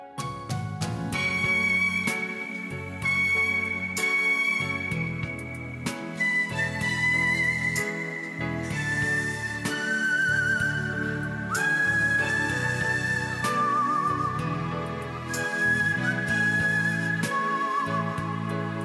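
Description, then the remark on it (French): A professional whistler whistles a melody from a 1970s film clearly over a full instrumental backing, with long held notes that step between pitches and a steady rhythmic bass underneath, continuing throughout without any talking. “Je sais pas si tu te rappelles les films qu'il a fait dans les années 70. attends, en sifflant.”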